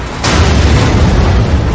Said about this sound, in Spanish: El reactor 4, diseñado para operar a 3.200 megavatios, superó los 33.000. Luego, en off sobre lo que narra. La presión del interior del núcleo ya no puede remediarse. llegamos al momento crucial. 1 y 33 y 45 segundos, la explosión.